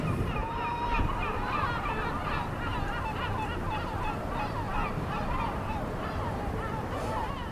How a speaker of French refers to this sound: d'avoir laissé traîner ton, micro dans les rues de Marseille, notre belle cité phocéenne, sa bonne mère veillant sur ses habitants et puis sur les acteurs de Plus belle la vie, hein, on ne le dit pas assez.